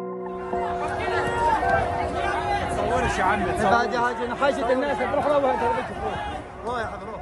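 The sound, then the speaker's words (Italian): A dense, agitated crowd of Palestinians, piled on one another while trying to seize sacks of flour or rice from a stopped truck near a wall, shouts and clamors, many overlapping voices forming a loud, continuous roar of commotion with no single speaker standing out. “Questa è una folla di palestinesi gli uni sopra gli altri mentre tentano di impadronirsi dei sacchi di farina o di riso a bordo di un camion fermo vicino al muro”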